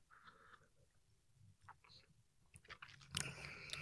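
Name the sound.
sipping beer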